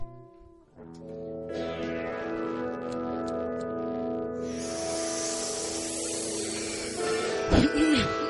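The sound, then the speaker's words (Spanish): A few small clicks, then a steady hiss like a lighter being lit and burning, heard over a sustained humming tone that continues throughout. “Aquí tengo mi encendedor.”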